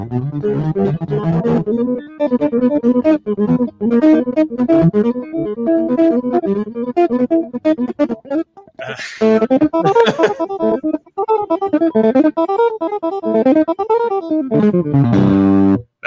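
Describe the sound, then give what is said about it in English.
An unamplified electric guitar, played clean without distortion, plays a fast run of notes, the quick picked phrases rising and falling without pause for about sixteen seconds, with no voices. “I don't have distortion on her, and I can't even hear myself. I don't have an amp, but you know, you get the point.”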